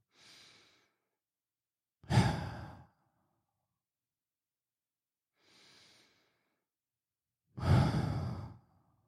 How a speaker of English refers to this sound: You take a deep breath. You tell your brain, shut the fuck up.